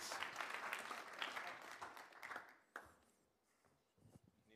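A burst of audience applause for an intern about to speak, dense clapping for about two and a half seconds that quickly thins out to a few scattered claps and fades away.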